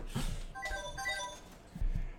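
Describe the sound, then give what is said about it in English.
A mobile phone ringtone plays a short melodic phrase of bright, sustained electronic tones, moderately loud, with some low thumps or handling noise at the start and end. “That's my phone.”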